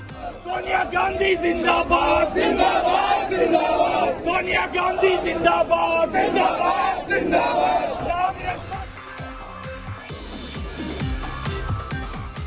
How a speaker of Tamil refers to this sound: ராகுல் காந்தியை தலைவராக்குமாறு கட்சி தொண்டர்கள் கோஷம்